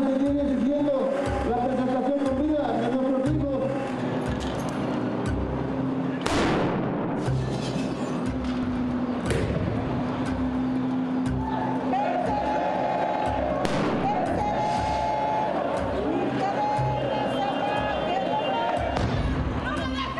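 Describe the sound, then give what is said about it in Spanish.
Several loud firecracker blasts go off a few seconds apart, sharp, as hooded protesters throw firecrackers at the Secretaría de Gobernación building on Bucareli, over a noisy crowd with shouting voices and a steady rhythmic thumping underneath. Seven firecrackers are thrown, four of them exploding. “hicieron un mitin y luego se despidieron así, con encapuchados tirando, lanzando petardos al edificio de Bucareli de la Secretaría de Gobernación.”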